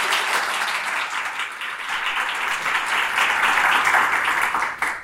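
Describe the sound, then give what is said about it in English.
An audience at an association meeting applauds a speaker's talk, a dense wash of many hands clapping at an even, fairly loud level that holds for about five seconds before tapering slightly at the end. “I think just um, if I can say on behalf of everyone, lovely round of applause there, which is a small gesture.”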